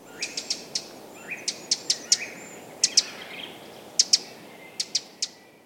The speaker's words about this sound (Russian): Немножко похожа позывка у крапивника чуть-чуть, вот можно тоже послушать.